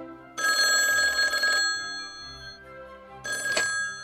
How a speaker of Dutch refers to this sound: En dan op een gegeven moment eh, ging de telefoon.